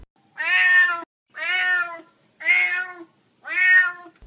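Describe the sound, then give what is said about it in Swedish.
A cat meows four times in a steady rhythm, each call long and loud, with short silent gaps between them. “Det här är ett misseljud.”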